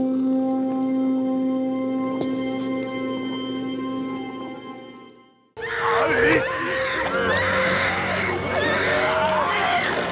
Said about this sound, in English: that was certainly an intense scene. I hope I didn't freak you guys out with the loud screaming, but uh, you know, it's kind of hard to capture that scene on audio.